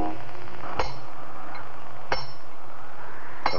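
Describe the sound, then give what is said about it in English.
Three sharp metallic strikes ring out at a slow, steady pace, each a bright clanging hit of a hammer driving steel pitons into the rock wall of the Diamond face during a climb, with a brief ringing tail after every blow. “Can you imagine what two men in such a situation would be talking about while one of them hammers life-giving steel pitons into the rock wall of the diamond face?”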